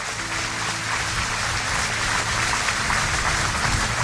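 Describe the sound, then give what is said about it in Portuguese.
An audience applauds God before praying, a steady, dense wash of clapping that holds at an even loudness for several seconds, with a faint low sustained tone humming underneath. “Aplauda Ele e vamos orar.”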